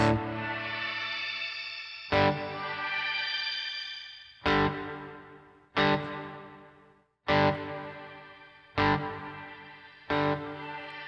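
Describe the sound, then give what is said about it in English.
An electric guitar played through a shimmer reverb pedal strums a series of chords, about seven in all, each ringing out into a wash of steady, even, flat reverb before the next one lands. No one speaks. “So you get kind of a flat reverb there.”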